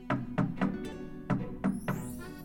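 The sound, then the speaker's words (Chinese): Two groups of knocks on a door, three quick dull raps each, separated by a short pause. The knocks are solid and moderately loud, with no voices. “不一会儿，七只小羊听到有人敲门，”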